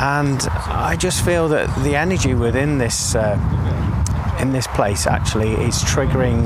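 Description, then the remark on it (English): A steady, low rumble of traffic from a road runs continuously in the background while someone speaks over it. “the noise you can hear in the background is traffic from the road.”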